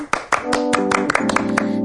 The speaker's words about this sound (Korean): 자, 박수 드릴까요?